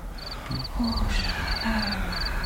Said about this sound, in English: Hmm. Cricket.